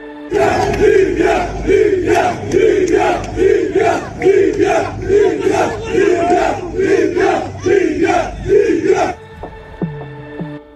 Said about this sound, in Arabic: هذا مقطع من احتجاجات شعبية في مصراتة وأخرى في طرابلس وسبا كلها تطالب بوقف الصراع الحالي المستمر في ليبيا منذ سنوات